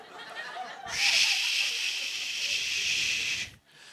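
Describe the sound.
A person pretending to surf while balancing on a pole imitates ocean waves with the mouth, a long, steady breathy "shhh" hiss lasting about two and a half seconds, fairly loud, then stopping abruptly. No one speaks.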